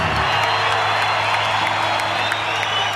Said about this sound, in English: Believe it or not, right? It's just a nice little polite clap for the for the new keyboardist. Yep, hadn't hadn't caught on yet.